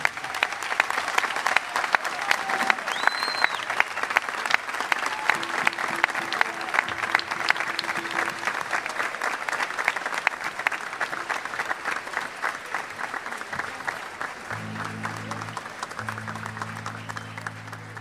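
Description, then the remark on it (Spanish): A crowd applauds steadily and loudly for the whole stretch, welcoming a composer, singer and poet, a dense wash of many hands clapping, with faint tonal hums and a low steady tone briefly surfacing beneath near the end. “Quiero que recibamos con un fuerte aplauso al genial compositor, cantor y poeta”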